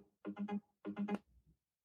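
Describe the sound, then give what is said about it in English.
A phone call rings twice in quick succession, each buzzy, warbling burst made of rapid pulses, then a soft low thump trails off. Fairly quiet, with no one speaking. “Can you guys hear it ringing? Now it's ringing.”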